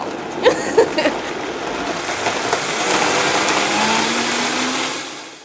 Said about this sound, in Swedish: Det här är ju min, min, min Vitamix, den här använder jag minst två gånger om dagen. Just det, en mixer. En, en, mixer, yes. Och den här är alltså riktigt super, den är två hästkrafter så den, den här, den tar allt.